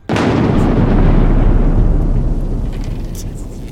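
A sound effect for a cast lightning bolt spell: a sharp lightning crack bursts in suddenly and gives way to a heavy, rolling thunder rumble that stays loud before slowly fading toward the end.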